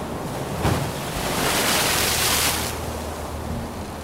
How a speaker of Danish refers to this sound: Vi er ombord på et skib. Men ikke bare et hvilket som helst skib. Det er et vikingeskib. De store bølger slår ind mod skibets sider, og en stærk blæst hjælper det kæmpemæssige træskib ud på det store, åbne hav.